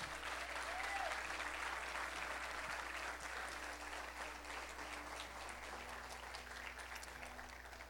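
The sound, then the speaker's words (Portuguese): An audience at a church service applauds God loudly and steadily for several seconds, a dense wash of clapping hands that holds at an even level throughout, with no speech over it. “Se você crê, aplauda Ele bem forte.”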